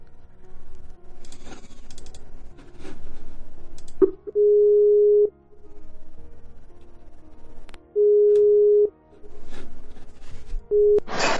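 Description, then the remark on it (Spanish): A phone's ringing tone as a call is placed to a listener live on air: a steady, clear electronic beep sounds about three times, each lasting around a second and separated by longer pauses, over faint background noise and clicks. “Eh, a ver quién ha conectado por aquí, a ver si podemos pegarle una llamadita a alguien.”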